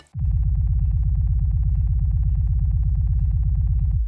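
A rapid, steady low thumping pulse of a hummingbird's heartbeat, racing at around a thousand beats per minute, loud and continuous for about four seconds with no voices.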